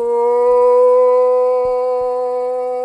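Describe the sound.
A man who calls wolves imitates a wolf howl, one long sustained tonal note held steady and loud for about three seconds, rich in harmonics, with a couple of faint low thumps underneath.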